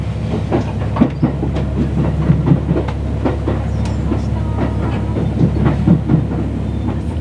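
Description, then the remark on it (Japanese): A new HC85 series hybrid Limited Express Hida train starts moving out of Nagoya Station, Japan, with steady low rumble and repeated clickety-clack of wheels over rail joints, heard from onboard at a moderate, even pace with no talking. “さあ特急飛騨の旅名古屋駅を出発して新型車両 HC85 系が動き始めました”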